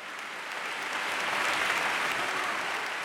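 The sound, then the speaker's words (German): A burst of applause from a crowd, dense steady clapping that swells slightly and holds for a few seconds, moderately loud with no voices. “du darfst dir da gerne Applaus einblenden.”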